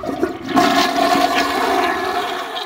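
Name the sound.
toilet flushing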